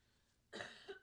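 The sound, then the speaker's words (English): After a brief quiet moment, a person gives a harsh cough in two quick bursts, loud and raspy, with no talking; blood came out with the cough. “Sorry, coughed and blood came out.”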